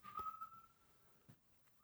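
A person whistles one short, sustained note that drifts slightly downward in pitch and fades out within about a second, fairly quiet, with no talking around it.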